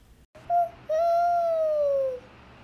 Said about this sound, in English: So, oh, the owl just flew flew from the Christmas tree.